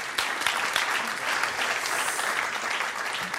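An audience claps steadily, a dense crackle of many hands at an even, fairly loud level for a few seconds, with no voices standing out.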